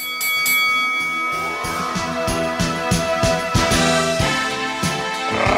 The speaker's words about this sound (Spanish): La acción comienza ahora, en esta esquina con Halim. Que suene la campana.